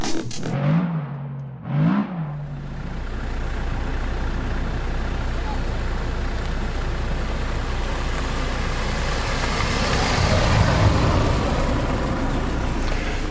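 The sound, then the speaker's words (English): A car drives past at the Myherin stage on a Friday night amid steady, broad road noise, its rushing swell building slightly toward the end. Two brief tonal bursts sound at the very start before the steady noise takes over. “A car drives past and I've sealed myself in because I'm in position.”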